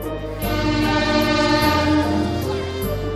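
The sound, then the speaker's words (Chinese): A train pulls into a station platform, a loud steady rumble layered with sustained, horn-like tones that shift partway through as it slows and clanks to a stop. No one speaks. “火车终于来了，它哀哀的发出一声好像叹气的声音，哐当一下停了下来。”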